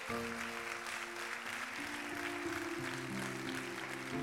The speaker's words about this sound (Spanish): Vamos, denle un aplauso al Señor si usted lo entiende.